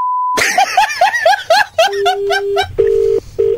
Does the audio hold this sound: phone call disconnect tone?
yes